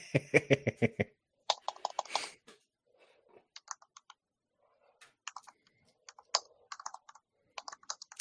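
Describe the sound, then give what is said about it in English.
Rapid clacky keystrokes on a tactile mechanical keyboard, starting in a dense burst, then continuing in uneven clusters of sharp clicks with short pauses between, fairly loud with no talking. “So are we on the mechanical keyboard right now? Yes, actually, yeah. I went with a tactile one.”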